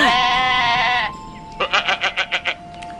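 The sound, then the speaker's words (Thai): A goat bleats loudly: one long wavering cry, a short pause, then a quick run of about seven stuttering bleats in a steady rhythm, with no talking. “นานมาแล้ว ก็มีแพะตัวหนึ่งได้พูดกับพญายักษ์ว่า”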